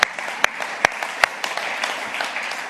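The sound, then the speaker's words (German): A crowd applauds steadily, a dense wash of many hands clapping at moderate loudness, with a few sharper individual claps standing out at the start. “So, jetzt könnt ihr ruhig einen Applaus geben für alle, die, die diese Entscheidung getroffen haben.”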